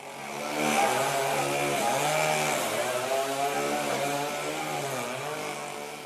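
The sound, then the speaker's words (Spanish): A chainsaw roars steadily as Italian comedian Leo Bassi cuts through a wall to enter a television set where he is to be interviewed, its engine pitch wavering slightly under load for several seconds, with no voices. “Lo que se escucha ahora mismo es el ruido de una motosierra cortando una pared la forma en la que Basi entra a un set de televisión en donde lo van a entrevistar.”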